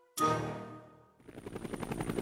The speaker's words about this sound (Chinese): 再一次乘坐他的直升飞机降落在王宫里